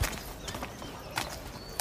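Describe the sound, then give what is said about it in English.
The arriving General's horse clops slowly on a hard surface, a few sharp, irregular hoof knocks spaced apart, over a quiet outdoor background. “take my horse.”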